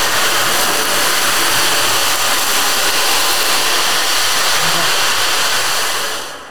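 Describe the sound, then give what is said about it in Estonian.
A loud, continuous wash of rushing beads sweeps across an ocean drum, a dense surf-like hiss that swells steadily for several seconds before fading away at the end, with no voices. “see ookean ja, ja kuulake nüüd seda, nii lihtne asi”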